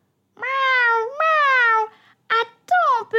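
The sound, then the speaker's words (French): A cat meows loudly: two long, drawn-out meows back to back, then a short chirp and another falling meow after a brief pause. “Tu sens bon, miaou”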